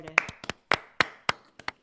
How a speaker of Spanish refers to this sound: Un aplauso, por favor.